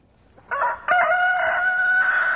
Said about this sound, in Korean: 네. 달개 울음소리. 오늘 보물소리입니다. 1부의이 노래가 어떤 노래에서 이 닭이 울지, 예. 요 닭울음소리를 여러분들 찾아주세요.